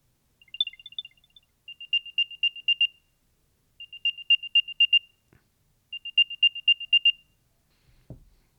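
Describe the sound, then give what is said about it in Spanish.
An AirTag tracker plays its locator chime, set off with the Play Sound option: a short trill of high electronic tones, then three bursts of rapid bright beeps with pauses between, ending with a soft thump. “Reproducir sonido. Vamos a ver cómo suena.”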